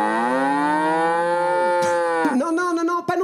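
A bull lets out a long, loud, drawn-out moo, its pitch shifting and breaking into a rougher, lower bellow near the end.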